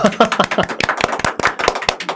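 A quick, uneven burst of hand clapping: many sharp, crisp claps in rapid succession over about two seconds, fairly loud, with a faint voice briefly underneath at the start.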